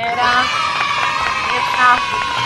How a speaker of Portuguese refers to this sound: Muito bem, mais palmas.